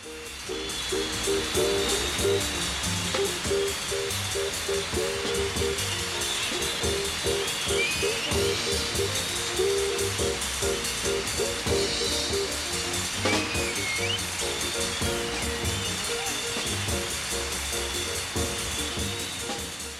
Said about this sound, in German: Also hier bei dieser Musik wird auf jeden Fall heftig geklatscht. Die hören gar nicht mehr auf.